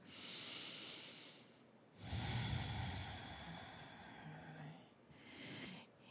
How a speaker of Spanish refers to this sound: Respira profundo, exhala, todo por las fosas nasales, vuelves a respirar profundamente. Otra respiración.